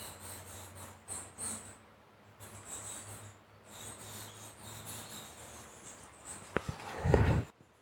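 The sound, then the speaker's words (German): Faint, high-pitched squeaking and chittering of bats in a heavily inhabited roost, picked up by a microphone held into it, repeating throughout over a low hum, ending in a burst of rubbing and handling noise. “Offensichtlich ist das also stark bewohnt von Fledermäusen. Ich halte das Mikro jetzt mal so ein bisschen da rein. Vielleicht könnt ihr das piepsen hören.”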